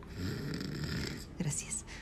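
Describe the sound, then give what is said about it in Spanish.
A voice imitates the loud snoring of a sleeping husband: a long rumbling inhale drawn out for over a second, followed by a short nasal snort and a whistling exhale, clear. “Volté a ver a mi marido que seguía durmiendo a pierna suelta. Los ronquidos, please.”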